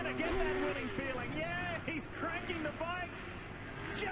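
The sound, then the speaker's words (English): Someone imitates a revving motorbike with their voice, a buzzing engine tone that repeatedly surges up and drops back down, fairly loud over a steady noisy background. “Revving, bro. Revving the bike. He's cranking it.”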